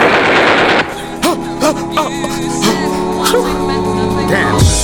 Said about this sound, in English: Oh no, I think I hear gunshots.